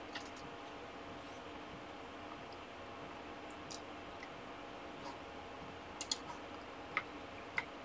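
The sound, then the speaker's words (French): A handful of crisp, quiet computer mouse clicks, made to take back control of a live stream, scattered and mostly near the end, over a steady whirring computer fan hum with no one speaking. “Là, vous devriez avoir, entendu le clic de la souris euh, pour reprendre les, commandes de, ce live.”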